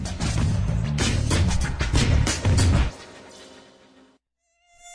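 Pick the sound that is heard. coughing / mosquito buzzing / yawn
mosquito buzzing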